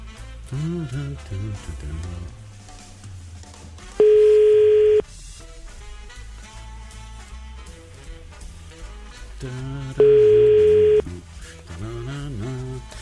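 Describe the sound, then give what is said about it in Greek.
An outgoing phone call's ringback tone, on a call made to wish someone a happy birthday, sounds twice, each a steady one-second electronic burr about six seconds apart, with faint background music and voices filling the gaps. “Σήκωσε το τηλέφωνο σου”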